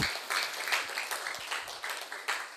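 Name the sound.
applause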